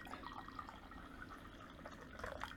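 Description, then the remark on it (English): Two brewed teas being poured together, a steady, soft trickle and splash of liquid lasting a couple of seconds, fairly quiet, with no one speaking. “Now just take these two and pour them in together.”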